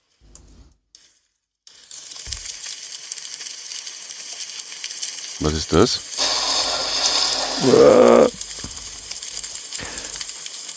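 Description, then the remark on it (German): A fireplace crackles with a steady, hissing rush and fine irregular pops that run continuously after a brief quiet start, while a voice briefly speaks over it. “Kaminknistern.”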